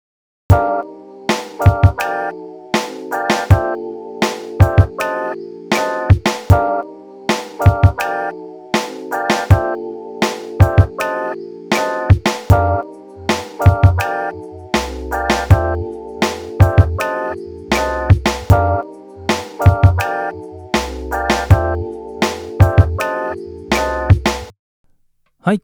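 A looping electronic beat being produced, with steady punchy drum hits and repeating synth chords; partway through, an added deep bass line joins, thickening the low end and the overall sound. Loud, no voices, ending abruptly.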